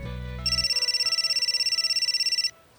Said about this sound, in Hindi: रास्ते में ब्रेकफास्ट के लिए एक ढाबे पर रुका खाट पर बैठा ही था कि मां का फोन आया